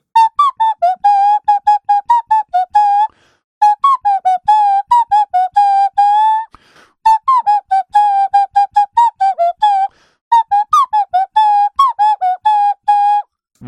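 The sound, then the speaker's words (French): A nose flute plays a simple tune in four phrases of short, clear whistle-like notes with brief pauses between them, loud and alone with no talking. “Voilà la fameuse flûte année. nez.”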